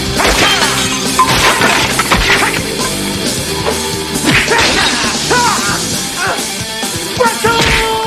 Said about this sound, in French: Euh, moi, ça m'a fait bien rire parce que pour que iPatch il rentre comme dans, le resto, il décalisse une fenêtre pour rentrer au lieu de juste comme prendre la porte, mettons, genre, puis rentrer.